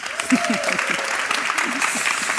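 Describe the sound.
Steady audience applause, a dense wash of clapping hands that holds at an even level throughout, with a few voices and a brief whistle-like tone mixed in underneath.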